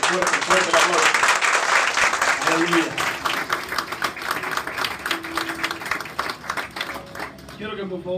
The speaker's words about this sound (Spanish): Fuerte el aplauso a Dios por estas vidas. Fuerte.